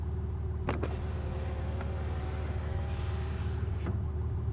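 The electric window of a limousine slides down with a steady whirring motor hum over an idling engine, beginning and ending with soft mechanical clicks.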